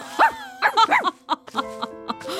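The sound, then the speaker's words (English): A person imitates a dog barking: a quick run of five or six loud, yappy woofs, followed by a few softer, fading yelps. “Well fetched, you are quite good at being a dog.”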